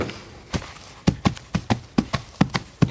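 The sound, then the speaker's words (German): Hollow, knocking clip-clops made with silicone-filled coconut shells in a small one-man studio imitate a smaller horse's hoofbeats, about a dozen crisp strikes falling in an uneven trotting rhythm, with no talking. “Das wäre das eine Pferd, etwas kleineres Pferd.”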